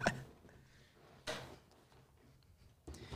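Someone shifts around in a chair to get out of an uncomfortable position, making three short bursts of rustling and creaking a second or so apart, with quiet pauses between them and no talking.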